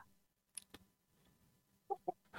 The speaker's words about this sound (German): Er, der Delfin macht dann so einen Tanz, schnattert entsprechend, macht so einen Rückenflossenschwimmer, äh, schnattert weiter